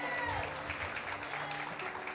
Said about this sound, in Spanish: Denle el aplauso fuerte al Rey de Gloria.